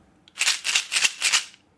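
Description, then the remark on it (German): A small plastic container of chewing gum, a wrapped-up gift, is shaken, giving four quick rattling bursts in a steady rhythm, bright and fairly loud, with no talking. “Ich bewege jetzt mal das Geschenk und du rätst, was es ist, okay?”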